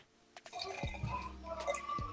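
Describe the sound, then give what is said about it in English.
A DDH triple IPA beer of about ten percent pours into a glass, a steady fizzing rush broken by a few low gulping glugs, with no one speaking. “And and all the pour.”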